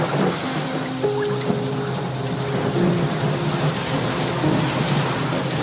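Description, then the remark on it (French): A heavy downpour roars steadily throughout, with deep rumbles of thunder rolling underneath; a few faint tonal hums drift through the dense wash of rain. It is a reconstruction of the 1999 storm as shown in the TV series La Promesse. “Comment on reconstitue la tempête de 99 comme on peut la voir dans la série”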